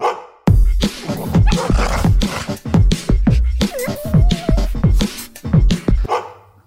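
A short, loud jingle opening a segment about life with dogs, built around a string of rapid dog barks and yips in a bouncy rhythm, with a brief whining tone midway, ending abruptly.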